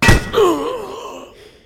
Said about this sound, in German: Er ist tot! Du hast einen Mafia-Boss erschlagen mit einer überfahrenen Katze! Ach, Unsinn, das war bloß die Urne.